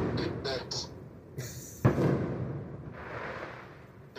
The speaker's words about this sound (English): got some good fireworks. these are real fireworks going on in the background. Yes, they are.